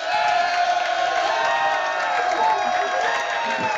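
A room of Seattle Seahawks front office staff cheering and whooping together over a telephone line, the receiver turned toward them by Pete Carroll, the sound thin and band-limited, a steady wall of overlapping shouts lasting the whole few seconds.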